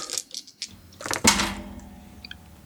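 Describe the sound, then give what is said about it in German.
Dice rattle in a few quick clicks, then tumble onto a hard surface with a louder clatter that fades out. Fairly loud, with no voices. “Ach, ich würfel jetzt einfach hoch.”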